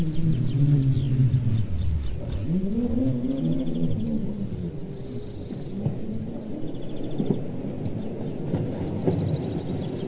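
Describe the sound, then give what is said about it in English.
Songs of whales and dolphins: long, low moaning calls that swoop up and down in pitch, overlapping against a steady underwater rumble, with fainter higher squeaks now and then. No one speaks. “The whales and dolphins are here. Listen to their songs, for the whales are the record keepers of Earth, and the dolphins are record keepers of humans.”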